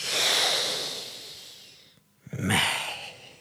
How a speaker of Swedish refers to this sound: Vi börjar med en utandning och sen fortsätter vi med en inandning och sen utandning igen, ungefär så.